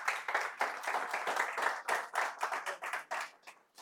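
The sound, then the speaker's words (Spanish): A crowd gives a strong round of applause just before a prayer, many hands clapping in a dense, uneven patter that holds fairly loud, then thins out and fades toward the end. “Un fuerte aplauso y vamos a orar.”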